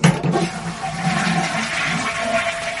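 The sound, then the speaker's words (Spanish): A toilet flushes with a loud, steady rush of water that fills the whole moment, swirling and gurgling without pause, with no voices over it. “Oye, ya, ya, ya ha ido el chorro.”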